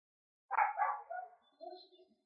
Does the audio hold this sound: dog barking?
yes